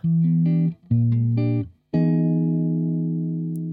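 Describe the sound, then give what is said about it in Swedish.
A short electronic jingle of three sustained chords, E minor 7, B-flat 13 and E major 7, moving from minor to major: two quick stabs followed by a longer final chord that rings out and slowly fades, with no voices. “Och Gingen då, till skillnad från det ni nyss hörde, det är E-moll 7, bess 13, E-maj 7. Så den går upp i dur.”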